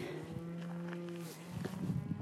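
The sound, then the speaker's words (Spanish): A cow lets out a long, steady moo lasting over a second, followed by shorter lowing and rustling noises, outdoors in a place with many cows. “Como no sé si estén escuchando, como las vaquitas que están aquí, estoy en un lugar donde hay mucha vaca”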